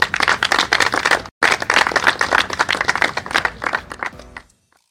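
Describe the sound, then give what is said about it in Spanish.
An audience at a PGA Tour México golf event applauds the tournament host, Mayakoba, and its owner, RLH Properties. Dense, crackling claps are briefly cut off near the start, then continue strongly before thinning and fading out at the end. “Un fuerte aplauso para esos dos, por favor.”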